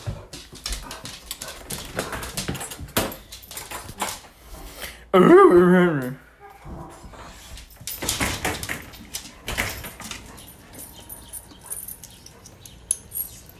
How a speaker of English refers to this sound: You see, he's barking just outside now.